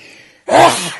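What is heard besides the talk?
sneeze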